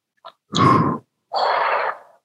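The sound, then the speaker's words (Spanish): A voice imitates the sound of a broom flying through the air with two breathy, rushing whooshes, each about half a second long, fairly loud, preceded by a tiny click. “Además de que los vientos emitían un sonido bastante parecido a lo que decían ellos era una escoba volando.”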